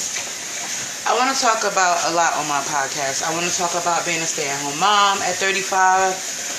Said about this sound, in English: I wanted to start a podcast, and if you hear one in the background, that's because um, I'm washing dishes.